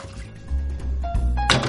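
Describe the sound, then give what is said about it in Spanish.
A coffee pot is emptied into a kitchen sink with a couple of hollow thunks and a short sloshing gush, no one speaking. “Vacía la cafetera en el fregadero.”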